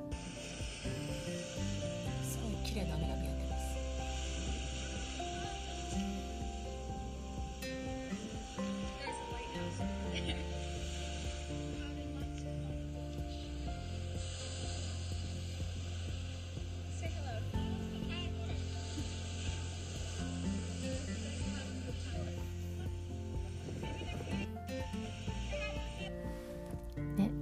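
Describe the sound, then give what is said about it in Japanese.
Steady rushing roar of ocean waves at the beach with wind buffeting, a constant loud wash throughout, and indistinct voices faintly mixed in underneath, from a video a young woman filmed of herself and a friend at the sea. “そうでね音だけでもねちょっとね聞けるかなラジオでちょっとかけますよ彼女がね送ってきた海と彼女のあと友達が入って言ってる写真あの動画を送っててくれたんですけどちょっと音だけでもね載せますね”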